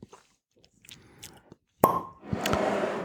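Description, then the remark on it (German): A single sharp cork pop with a brief hollow ring as a wine bottle is opened with a defective corkscrew, preceded by faint handling noises and followed by a steady rushing, splashing sound like wine being poured. “So, das nächste Plopp-Gefühl. Der nächste Wein.”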